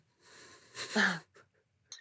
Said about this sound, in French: Je reprends ma respiration.